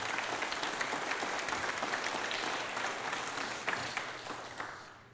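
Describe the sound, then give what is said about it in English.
A crowd breaks into steady applause, dense overlapping claps for several seconds before tapering off slightly at the end, approving the news that 16 middle schoolers prayed to follow Jesus. “I would like for us to, yeah, approve of that.”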